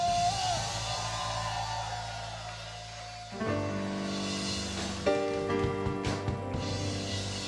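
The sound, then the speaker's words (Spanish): An audience erupts in sustained shouts and cheers of joy, a loud, dense wash of many voices mixed with ringing held tones, swelling again partway through. “¿Cuántos tienen un grito de júbilo?”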